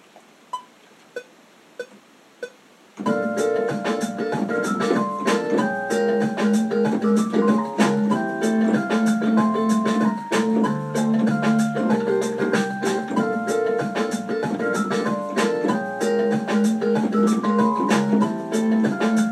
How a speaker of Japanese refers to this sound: キーボードのピロピロをこのシンセサイザーの音にちょっと置き換えてみてます。